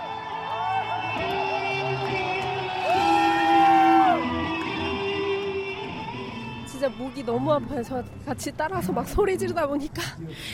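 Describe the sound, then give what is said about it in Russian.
A large rock festival crowd cheers and shouts, with sustained yells and whoops rising over a dense roar, then breaking into scattered excited shouts and chatter. “Рок-фестиваль, начавшийся днем, завершился лишь к двум часам ночи.”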